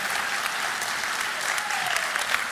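Steady audience applause, a dense patter of many hands clapping at an even loudness throughout, with no voices standing out.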